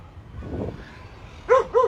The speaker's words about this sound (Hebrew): ולכל הכלבים שנובחים ברקע, דעו לכם שהשיירה עוברת. נכון. טוב, אוקיי, ישבת פה ליד הגינת כלבים כדי לזכור שהשיירה עוברת.